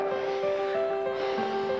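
A long, deep breath drawn in slowly during a calming breathing exercise, a soft continuous airy rush lasting nearly two seconds, over a steady sustained musical drone with no talking.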